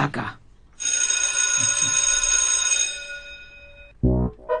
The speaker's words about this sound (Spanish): No me queda más que pedirle a la jefa de preceptores de este espacio que haga sonar el timbre para comenzar una nueva clase